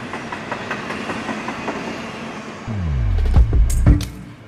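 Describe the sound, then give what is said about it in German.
A freight train in Mexico, ridden by migrants heading north toward the USA, rolls along the rails, its steady rumble swelling as heavy low clanks and metallic screeches build near the end, loud, with no voices. “Heute nehme ich euch mit auf eine Reise mit den Migranten durch Mexiko die sich äh, von Mittelamerika ähm, auf den Zug schwingen, auf den Güterzug und dann versuchen, in die USA zu kommen.”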